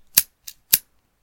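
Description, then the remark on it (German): Three crisp scissor snips in quick succession, the middle one softer, clean against silence. “Ähm, wir cutten das Ganze hier kurz.”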